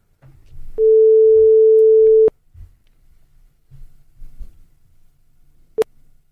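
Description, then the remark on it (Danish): A single steady, mid-pitched telephone ringing tone sounds loudly for about a second and a half as a call is placed to a grandmother, followed by low background rumble and a sharp click near the end. “Okay, men nu prøver vi i hvert fald lige at se, om vi kan fatte min mormor over...”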